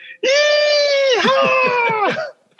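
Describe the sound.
A voice mimics the loud scream of riders in a bobsled going through the Kreisel, corner nine of the track in Calgary: one sustained high-pitched wail lasting about two seconds with a wavering, dipping pitch, with no other sounds around it.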